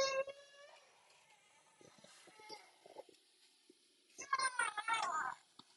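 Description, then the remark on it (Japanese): A baby cries in two bursts, a short wail at the start and a louder, wavering cry near the end, with quieter background sounds in between. “泣いてる。”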